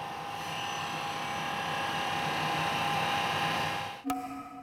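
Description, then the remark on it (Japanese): A steady, high whirring grind of the uneven rim of a glass container being polished on a spinning wheel, holding an even level for about four seconds before a sharp click and a shift to a different hum. “凸凹になっている口の部分を磨きます”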